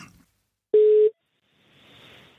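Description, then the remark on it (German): A single steady telephone ringing tone sounds once, loud and clear against near silence, then gives way to faint line hiss as a call is placed to reach someone during a technical hold. “Ich rufe ihn jetzt einfach mal an.”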